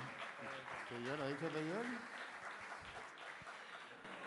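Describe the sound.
A crowd applauds steadily, a dense wash of clapping throughout, with cheers and a voice briefly rising over it near the start before the clapping continues evenly.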